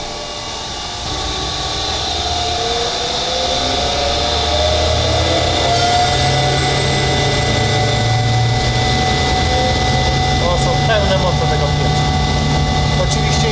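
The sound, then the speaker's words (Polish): A coffee roaster built in the 1950s, at a roastery in Biłgoraj, Poland, runs with its mixing paddles turning and its burner not yet lit. It makes a steady, loud mechanical drone with a whirring hum that swells in after the first second and holds continuously. “No tak naprawdę tu są jeszcze łopatki, które się kręcą.”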